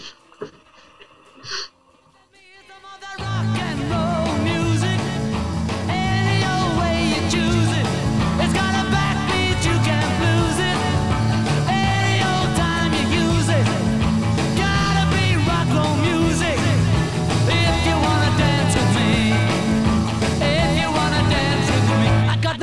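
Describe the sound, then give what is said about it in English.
After a few seconds of faint clicks and rustling, a 1960s rock and roll recording, done in one take, kicks in loud and full, with steady bass, driving rhythm, slap-back delay echo and bright, busy instrumentation continuing to the end. “so rock and roll music uh, done in one take.”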